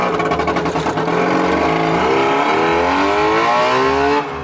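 A small two-stroke Trabant car engine revs up and accelerates, its buzzing, rattly note climbing in pitch through several gear-like surges before cutting off abruptly near the end.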